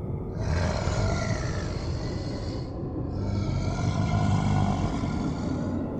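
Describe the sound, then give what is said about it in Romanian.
Two long, deep, rumbling monster groans, the first fading after a couple of seconds and the second swelling right after, loud and raspy, with no talking. “Geamăt monstruos se auzi.”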